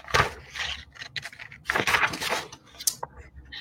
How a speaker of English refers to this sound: I love the sound of mm. pages clipping. I like I like the sound of paper, especially research articles.